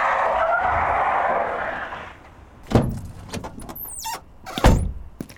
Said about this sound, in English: Mac pulls up at the front entrance and just parks wherever the fuck he wants to.